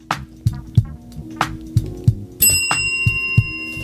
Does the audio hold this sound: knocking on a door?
no